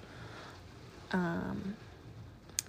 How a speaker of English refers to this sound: And I'm sorry the rain is a little loud.